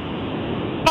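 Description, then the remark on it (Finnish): Steady, muffled road noise rumbles continuously through a narrow phone line as the caller is on the road driving home from work, ending with a brief, brighter burst of sound right at the close. “Sä oot tien päällä.”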